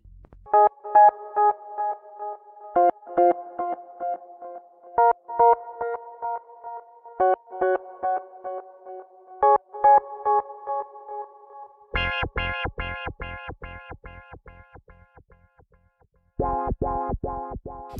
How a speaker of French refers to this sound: Ensuite, d'autres sons grâce à un clavier.